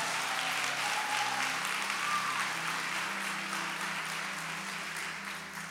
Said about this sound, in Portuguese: Vamos aplaudir esse pregador aí no nome de Jesus.